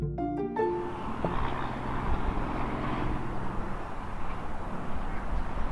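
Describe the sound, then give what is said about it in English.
A steady, continuous roar of traffic on the Brooklyn Queens Expressway in New York, heard from the Brooklyn Heights Promenade, a park running above the highway: a dense wash of passing vehicles with no pauses, after a brief tonal sound fades out at the start. “That's the sound of the Brooklyn Queens Expressway from the Brooklyn Heights Promenade, it's a park that runs above the BQE.”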